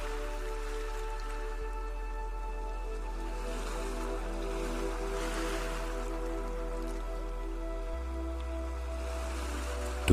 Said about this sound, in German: Schaue nun auf das Meer und beobachte genau die Wellen, wie sie sich aufbauen und brechen.